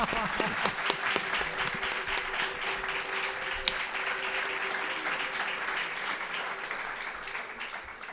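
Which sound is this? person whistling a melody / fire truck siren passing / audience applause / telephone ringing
audience applause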